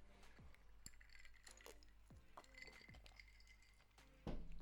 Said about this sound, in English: I have a glass of rum, sorry. Um, a swig of rum, sorry.